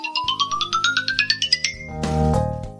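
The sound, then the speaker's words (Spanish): An iPhone's Ascending ringtone: bright electronic chime notes, quick and evenly pulsed, climbing steadily in pitch and ending in a shimmering synth swell over a low sustained pad, clear with no talking. “Ascendente, el que vamos a escuchar ahora.”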